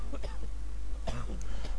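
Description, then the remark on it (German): A couple of short coughs break out one after another, with some throaty, voiced rasping around them, like a person clearing their throat. “husten wir mal zum nächsten Thema.”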